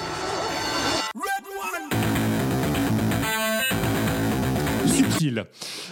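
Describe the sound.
A music producer's signature audio jingle, which he puts on every song he composes: dense, loud bursts of processed, voice-like sound over thick music, with stuttering chopped segments and a sharp cutoff near the end.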